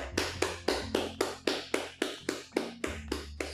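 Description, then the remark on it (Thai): One person claps hands steadily, about a dozen crisp, even claps roughly three per second, with a faint low hum running underneath and no talking. “การปบมือคนเดียวเนี่ยมันคลินช์ไหม”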